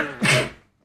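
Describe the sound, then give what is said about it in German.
A single loud sneeze: a short voiced intake rising into a sharp, breathy burst that quickly fades to silence. “Shit, ich muss niesen.”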